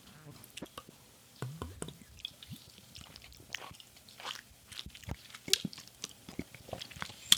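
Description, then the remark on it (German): Someone sipping and drinking a beverage: a quiet run of soft slurps, swallows and wet mouth clicks, scattered irregularly over several seconds with no talking. “So, ich trinke jetzt.”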